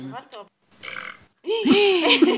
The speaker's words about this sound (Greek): Ντροπή, βάλαμε ένα λάμα που ρεύτηκε στο κοινό